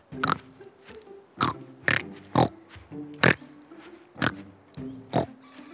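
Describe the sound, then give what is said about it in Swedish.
A farm pig grunts and squeals in a run of about seven short, loud bursts spaced irregularly, with no one talking, as it throws itself back and forth with its legs twitching. “Titta hur det rycker i benen när grisen kastar sig av och an.”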